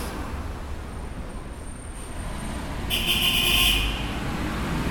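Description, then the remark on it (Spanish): A car horn honks once, loud at about 87.5 decibels, for about a second over a steady rumble of city street traffic. “La bocina 87 y medio.”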